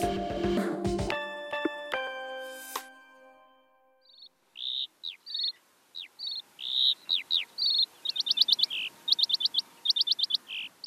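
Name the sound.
birdsong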